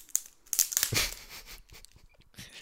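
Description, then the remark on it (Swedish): Irregular crackling and snapping, like a fireplace burning, with a burst of dense crinkly pops early on and then scattered quieter clicks, all fairly soft with no voices. “Det låter Känns som att någon lite- sitter vid en brasa också när det knäpper sådär.”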